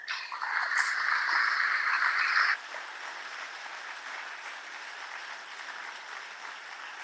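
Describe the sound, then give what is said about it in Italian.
An audience at a conference breaks into loud, dense clapping in thanks for a book by Claudio Siniscalchi, lasting a couple of seconds and then cutting off abruptly, leaving a steady, quieter hiss of crowd noise. “sono esistiti fortunatamente perché in assenza loro probabilmente non è detto che ci sarebbe stato poi un secondo tempo, che sono stati e sono rappresentati in questo bel libro di Claudio Siniscalchi che io ringrazierei ancora con un applauso.”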